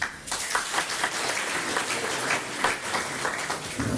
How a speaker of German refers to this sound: Begrüßeren mit einem kleinen Applaus